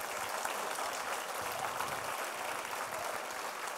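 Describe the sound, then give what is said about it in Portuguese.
A church audience applauds Jesus steadily, a dense, continuous wash of many hands clapping at an even level throughout, with no voices standing out. “Quem crê, diga amém, dê um aplauso a Jesus.”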